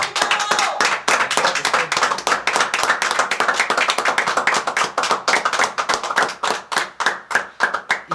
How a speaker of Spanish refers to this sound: Vamos a darles unos aplausos al señor Guillermo.